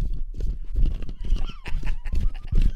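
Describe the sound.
A rush of galloping horses, hooves pounding in a dense, rapid clatter with a whinny rising through the din, loud, with faint voices mixed underneath.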